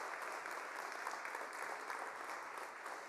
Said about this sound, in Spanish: Y este aplauso fuerte es para ti también que nos ve a través de las redes.